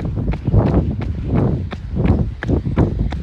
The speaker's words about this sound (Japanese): 私、本日からですね、ズームフライ4をデビューさせまして、いやいやいや、この足音、どうですか違うんじゃないですかね。